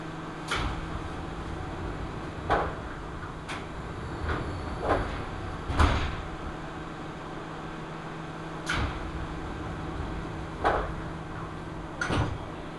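A train running along the Seibu Chichibu Line between Hannō and Nishi-Agano, Japan: a steady low rumble and hum inside the carriage, broken by irregular, fairly sharp clacks from the wheels every second or two. No talking.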